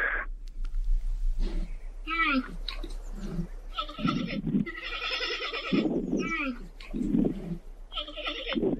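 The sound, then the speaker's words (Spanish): A recording of a giant panda plays, giving a series of loud, bleating calls in several bursts, some wavering and nasal, others harsh and honking, repeating over a low background rumble. “Ya no me digas palabras ni nada porque te quiero escuchar directito y quiero comparar el panda original que el panda costurero, ¿ok?”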